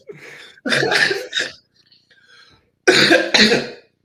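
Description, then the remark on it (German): A loud coughing fit: a soft breathy lead-in, then three harsh coughs in quick succession, a brief quiet pause, and two more forceful coughs. “Husten ja, richtig”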